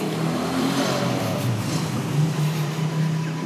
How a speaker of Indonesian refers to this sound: Iya, ini suara motor anjing emang iya studio kita outdoor ya soalnya iya.